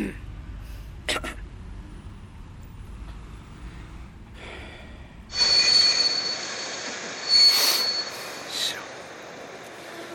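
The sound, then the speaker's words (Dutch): A train rolls past with a low rumble, then its wheels squeal sharply in high, drawn-out screeches that rise and fall over several seconds, loud. “Als we wat doorlopen, halen we nog net de trein. Ja, na deze trein komt er nog een.”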